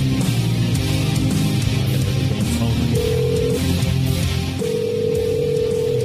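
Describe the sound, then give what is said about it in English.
A telephone rings in steady electronic tones, two sustained bursts with a short gap between them, over a dense, humming musical background. “Eight on the phone ring”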